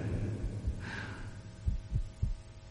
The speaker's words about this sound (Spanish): Llegó entonces a mis oídos un sonido débil, sordo, repentino, como el de un reloj envuelto en algodón. De sobra conocía el sonido también. Era el latir del corazón del viejo.